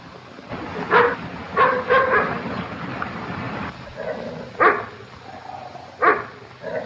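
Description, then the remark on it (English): A dog barks about five times in irregular bursts, a quick cluster of three followed by two spaced-out barks, fairly loud over a steady background murmur. “Is that your dog? Yes, why? What's he barking for?”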